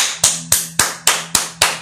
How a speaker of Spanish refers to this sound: Aplausos para ellos.